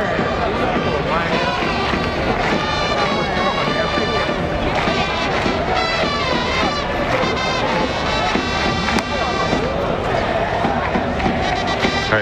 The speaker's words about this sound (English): that's the sound of the Bay Stars cheering section, rocking it out there on the brass and the drums.